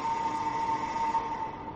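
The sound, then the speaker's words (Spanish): A lighthouse foghorn siren on a bay sounds a single sustained, steady note, loud and unwavering, with a rich harmonic buzz and no voices over it. “ahí está, el sonido solitario, la sirena de la bahía de la soledad.”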